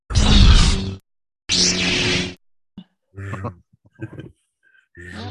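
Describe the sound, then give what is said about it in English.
Two loud, breathy whooshing swings voiced by mouth, imitating the whistle of a swung sword, like a lightsaber sound, each about a second long, followed by a few quieter, softer voiced bursts. “This one means to flourish a sword in a dance, and it does make a whistle ah, when the sound of the sword makes when it goes like like a lightsaber.”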